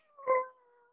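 A single drawn-out meow from a cat named Anakin, moderately loud, swelling briefly in the middle before trailing off into a thin sustained tone. No one is talking.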